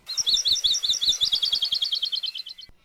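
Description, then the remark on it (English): A small forest bird, an akekee in Hawaii, sings its present-day song: a rapid trill of high, sweet chirps, about two dozen notes accelerating slightly and fading at the end, clear with no voices. “And now they sound like this.”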